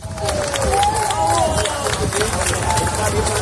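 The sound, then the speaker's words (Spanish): A crowd outdoors at the scene of a building fire breaks into spontaneous sustained applause and cheering as firefighters rescue two people from between the fourth and fifth floors, a dense wash of clapping with voices mixed in, steady and fairly loud throughout. “Son, son los aplausos que, se han generado de forma espontánea, evidentemente, aquí en la zona, cuando los bomberos han podido rescatar a esas dos personas que estaban entre la cuarta y quinta planta del, del edificio.”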